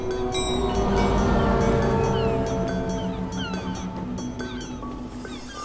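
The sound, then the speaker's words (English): A train rolls past, a loud continuous rumble layered with high squealing whines and sustained horn-like tones, steady throughout with no voices. “Feeling of trains, planes, automobiles, whales, seals, it's all there mashed up together in this crazy way.”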